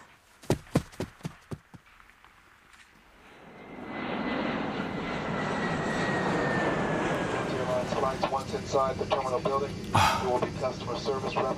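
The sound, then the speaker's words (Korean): A few sharp clicking knocks, then a jet airplane engine roars up and holds steady, loud, with a thin high whine over the rumble and muffled voices underneath toward the end; the plane is a flight bound for Korea. “아, 아, 비행기 놓칠 뻔했네.”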